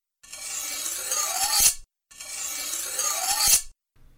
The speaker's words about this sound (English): And how about a slashing or cutting sound for the slashes?